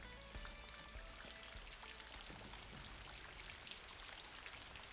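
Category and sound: nature, rain falling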